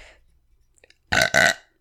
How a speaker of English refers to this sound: Someone should have paid me for that fucking burp.